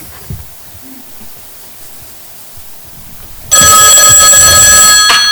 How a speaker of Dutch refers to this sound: Telefoon.